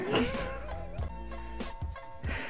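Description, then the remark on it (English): Someone imitates a pig, making a string of nasal, grunting oinks with short pauses between them, fairly loud and with no other talk. “Listen, enough oinks.”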